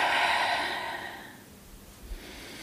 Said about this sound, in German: Nehmt einmal einen ganz tiefen Atemzug durch die Nase. Die Nase filtert nämlich die Luft, von daher durch die Nase ein und durch den Mund aus.